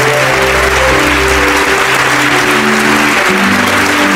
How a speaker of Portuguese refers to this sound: E vamos aplaudir o Senhor Jesus por cada vida que está chegando.